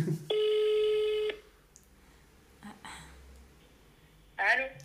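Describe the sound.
A single loud, steady ringback tone of an outgoing phone call, about one second, a buzzy mid-pitched hum with harmonics, followed by quiet line noise and brief bursts of a voice answering at the end.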